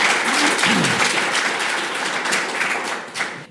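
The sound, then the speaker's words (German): Audience applause welcoming the audience at an event presenting four books with readings: a dense, steady wash of many hands clapping at once, loud and sustained, with no voices over it, tapering only slightly at the end. “Herzlich willkommen und schön, dass Sie alle da sind. Applaus”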